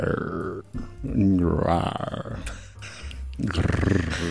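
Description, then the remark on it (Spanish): A man's voice imitates a growl of the kind people make when deep in a role-play, a drawn-out, guttural grunt, rough and throaty, rising and falling over a few seconds, with another voice murmuring briefly underneath. “ese tipo de gruñido”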